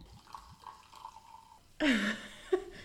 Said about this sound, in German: Sollen wir uns mal was einschenken? Ja. Wir können ja einfach mal ein bisschen was einschenken, dann können wir von beiden probieren.